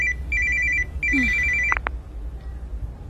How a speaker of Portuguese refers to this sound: Mãe, o seu telefone está a tocar.